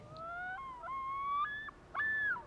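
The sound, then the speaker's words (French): A common loon's wailing call: long, mournful sustained notes that slide and step between pitches, rising and holding in three drawn-out phrases, clear with no other sounds. “Et le huard fit entendre son cri heureux.”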